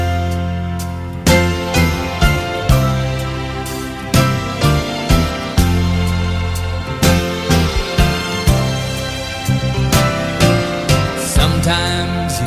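A 1970s pop-rock song plays clearly from an album, with steady piano-driven chords, bass and drums in a moderate rhythmic pulse, full with no talking over it.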